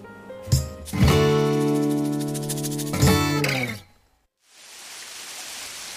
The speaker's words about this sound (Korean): 아, 아, 왜 밥 먹을 땐 몰랐는데. 아, 그새 비가 오네요? 가만있어 봐, 이거 우산도 없는데 어떡하지?